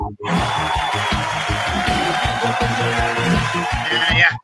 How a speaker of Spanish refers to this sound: Tenían aplauso